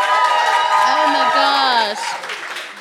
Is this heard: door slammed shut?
no